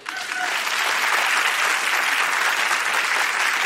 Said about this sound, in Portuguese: Uma salva de palmas.